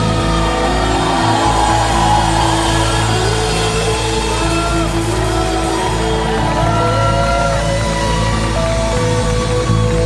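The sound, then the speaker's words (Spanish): Loud audience applause mixed with cheering, shouts and whoops from the crowd, sustained without a break for about ten seconds and with no one speaking over it. “Denle un fuerte aplauso a nuestra hija preciosa.”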